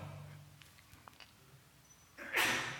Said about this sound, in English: But, but that, God bless you.